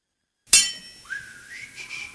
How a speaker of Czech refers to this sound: nyní uslyšíte skladbu Ivana Palackého, Luzní té Ela sklon.